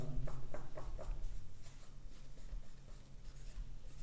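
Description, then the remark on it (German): Quiet scratching of a pen moving across paper as someone writes a personal dedication, with a few quick distinct strokes at the start giving way to steady continuous writing. No one speaks. “Niklas, was schreibst du noch einen Roman da?”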